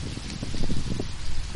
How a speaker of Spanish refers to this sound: No se puede hacer esta prueba porque, porque es que está lloviendo. Está protegida la, vela, pero bueno, eh, siendo sincero, le puede caer agua o, o, el viento que hace es impresionante.